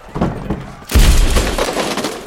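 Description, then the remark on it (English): A bookcase in a library is knocked over: a sudden, heavy crashing thud followed by about a second and a half of clattering, rattling debris as things tumble and break. “Knock the bookcase over!”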